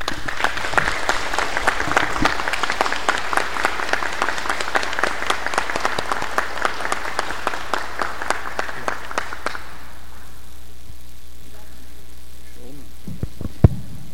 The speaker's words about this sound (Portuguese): Eu encerro pedindo uma salva de palmas para as nossas voluntárias, porque tudo que é feito aqui é feito por elas.